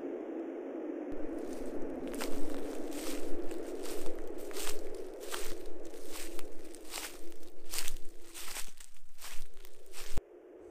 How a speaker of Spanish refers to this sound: Los pasos que habíamos escuchado entre los árboles aparecieron nuevamente. Esta vez parecía que bajaban del bosque, de allá, de lo alto. Pero ahora pudimos ver perfecto lo que provocaba el ruido.